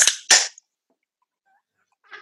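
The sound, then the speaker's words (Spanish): A 710 cc can of Schneider beer snaps open with a sharp crack and a quick hiss of escaping gas, followed by silence and a faint, brief fizz near the end. “Esos fueron 710 centímetros cúbicos de Schindler Ah, no, Schneider.”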